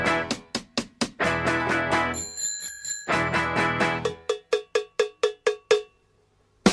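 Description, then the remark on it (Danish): The intro of a 1974 Danish song opens with a punchy, loud burst of rhythmic hits and bright ringing bell tones, settling into sharp staccato strikes before a brief pause and one final hit, with no singing. “Det er … fra 1974. Så tager vi cyklerne frem. Jeg kan høre, at den starter lige på hårdt.”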